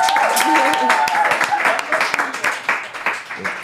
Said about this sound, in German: Einen großen Applaus.